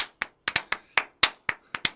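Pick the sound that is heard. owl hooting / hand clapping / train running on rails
hand clapping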